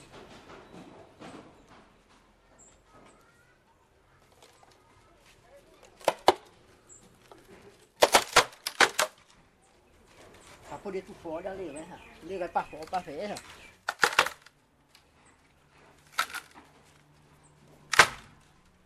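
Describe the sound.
Sharp, hollow whacks of an axe chopping and splitting bamboo land irregularly, some in quick pairs, loud and close, while people talk between and around the strikes.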